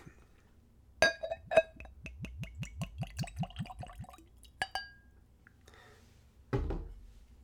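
Drambuie whisky liqueur from a fresh bottle glugs into a tulip-shaped nosing glass in a quick, steady run of gurgles, bracketed by light clinks of bottle against glass and ending with a dull thud as something is set down.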